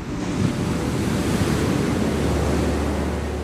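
Steady roar of ocean surf with waves washing in continuously, mixed with gusty wind noise across the microphone; no voices.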